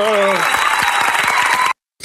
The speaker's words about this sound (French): Bon, bah je vous propose euh, qu'on arrête un peu sur cette partie et qu'on fasse un tonnerre d'applaudissements